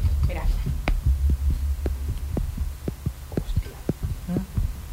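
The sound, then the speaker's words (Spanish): An amplified pulse heartbeat from an ankle thumps steadily, about two beats a second, over a low constant hum with faint muffled rustling in the background. “Ese latido es mi tobillo.”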